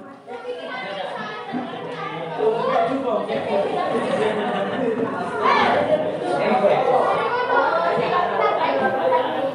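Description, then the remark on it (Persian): A lively crowd of happy children shouting, chattering and laughing at once while playing during school recess, some chasing each other, some talking by a wall, a steady, dense din that swells slightly louder after the first couple of seconds and stays busy throughout. “بچه ها خوشحال زبان زمان استراحت با سر و صدا مشغول بازی بودند یه عده دنبال هم میدویدن یه عده کنار دیوار صحبت میکردن بعضی مشغول خوردن بودن و یه عده مشغول شیطنت”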